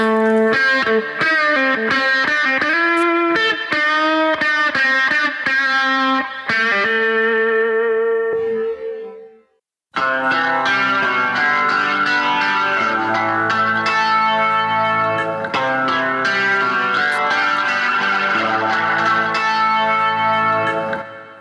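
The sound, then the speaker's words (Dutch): Electric guitar plays a run of bright, effects-laden melodic notes that trail off into a brief pause, then returns with denser, distorted chords and ringing lines. No one speaks. “speelde deze gitaar?”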